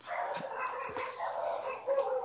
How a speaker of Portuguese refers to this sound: Só um segundinho que tá passando uma carroça aqui na frente com uma legião de cachorro latindo.